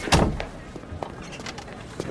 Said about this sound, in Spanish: Cierra la puerta, por favor.